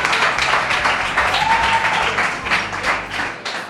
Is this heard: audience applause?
yes